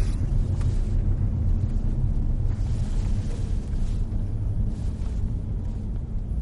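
A steady, low engine rumble fills the inside of a moving car, a continuous droning hum with faint road noise and no voices.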